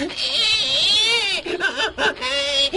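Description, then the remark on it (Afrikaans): A loud wailing cry in the veld that holds a long wavering note, then breaks into shorter sobbing bursts with brief gasps between them, heard alone without talk. “Terwyl Mani en Driekie nog so loop en gesels, hoor hulle skielik 'n gehuil in die veld.”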